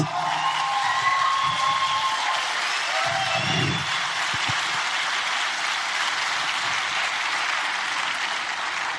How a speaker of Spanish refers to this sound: Mi mamá es madre soltera. Y un aplauso a las mamás solteras.